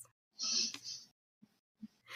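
A single sneeze from a woman asleep: a quick breathy intake followed by a hissy, sputtering burst, then a couple of faint soft noises and breaths.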